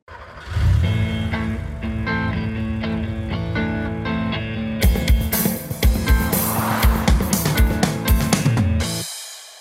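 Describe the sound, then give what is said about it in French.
A short, loud intro jingle: sustained synth chords with revving engine and screeching tire effects, then punchy percussive hits in the second half before cutting off abruptly near the end. “Jingle.”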